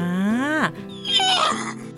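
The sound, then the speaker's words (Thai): A single whinny from an old horse, loud, rising sharply in pitch and then breaking into a shaky, trembling neigh that trails off after about two seconds. “ม้าแก่แก่มากแล้ว หูก็ไม่ค่อยได้ยิน ก็เลยคิดว่ามาแมลงวานถามว่าตัวเองน่ะชื่ออะไร ม้าก็เลยตอบไปว่าฉันน่ะเหรอฉันน่ะ ชื่อ ม้า”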